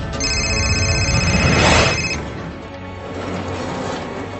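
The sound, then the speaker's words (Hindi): Hemraj's mobile phone rings with a call from a PCO in Nithari, Noida: a steady, bright electronic tone holds for about two seconds, then cuts off, leaving a low rumbling background. No one speaks. “इस बीच नोएडा के निठारी के एक पीपीओ के हेमराज के मोबाइल पर एक फोन आया”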